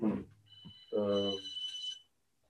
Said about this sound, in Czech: pardon, mě zvoní telefon